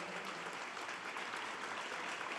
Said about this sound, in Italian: applaudiamo gli anziani, i bambini, le persone con disabilità, applaudiamo i lavoratori, tutti quelli che si mettono al servizio.